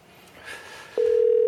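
After a moment of quiet background hiss, a telephone dial tone switches on abruptly and holds steady, a loud, continuous single-pitched hum running to the end, as a call is placed to LG Twins rookie pitcher Kim Yun-sik.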